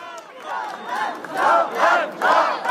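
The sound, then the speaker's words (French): At the Salon de l'Agriculture, a large crowd of supporters cheers and chants as Rassemblement National president Jordan Bardella makes his entrance, loud rhythmic waves of many voices rising and swelling roughly every half second with no single speaker standing out. “Le président du Rassemblement national, sous les acclamations.”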